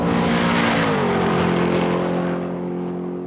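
A loud car engine revs hard, its pitch climbing then settling into a steady high drone that tapers slightly, with no voices over it.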